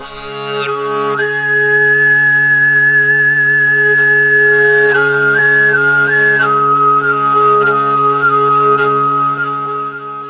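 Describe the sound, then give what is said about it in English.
Sygyt-style throat singing: a steady droning voice holds a low fundamental while a piercing, flute-like overtone whistles above it, sliding between sustained high pitches in a continuous melody, loud, with no talking. The style reduces the fundamental's loudness and amplifies the overtones. “Finally, the Sygyt style cuts the loudness of the fundamental and amplifies the overtones, resulting in a whistling, high pitched sound.”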